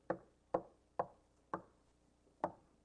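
Five knocks on a door: four evenly spaced raps, a short pause, then one final knock. The knocks are hollow and fairly soft, with no voices.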